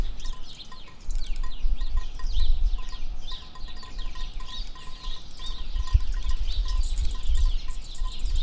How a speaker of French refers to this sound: On écoute. Bruit des gouttes qui tombent. Bruit de l'eau qui coule. Bruit des oiseaux. Bruit de tout, en fait.